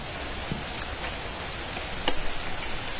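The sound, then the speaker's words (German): Steady rain patters down in a continuous hiss, with scattered sharper drops ticking through it and a brief louder burst of drops near the end. No voices are heard. “Äh, jetzt kommt aber nochmal Regen.”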